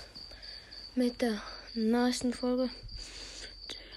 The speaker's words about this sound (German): Ihr hört diese Scheißgrille im Hintergrund. Stört mich nicht.